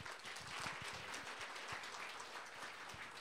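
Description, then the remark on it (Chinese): An audience breaks into steady applause, many hands clapping at once in a dense, continuous patter that holds at an even, fairly loud level throughout with no voices. “来，一二三，学做会教传，好，掌声鼓励。”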